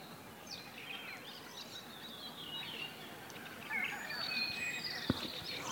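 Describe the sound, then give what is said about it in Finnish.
A common blackbird calls with a series of high, bright chirps, then flies off, amid a busy outdoor dawn chorus before sunrise, with a skylark singing in the background. The birdsong is fairly faint, with a sharp click near the end. “Musta rastas. Se lensi.”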